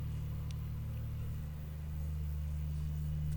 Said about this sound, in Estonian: keegi pani vist murutraktor käima, aga loodame, et see väga ei häiri